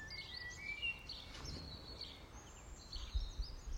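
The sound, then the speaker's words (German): Several birds of many different kinds sing and chirp at once outdoors in nature, their high warbling calls overlapping continuously over a soft ambient hush, with no one speaking. “Alle Vogelstimmen der unterschiedlichsten Sorte.”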